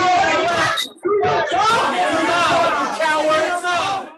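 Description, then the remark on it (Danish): Angry parents shout over one another at a school-board meeting as the board chair tries to stop the meeting early, a loud, continuous tangle of raised voices and jeers, including shouts of "coward", with barely a pause, briefly dipping before the clamor surges back. “Ja, kujon bliver der blandt andet råbt, øh, da formanden for skolebestyrelsen siger sig nødsaget til at prøve at stoppe det her møde før tid på grund af den megen uro.”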